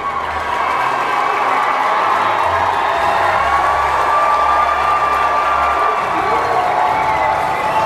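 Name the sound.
applause and cheering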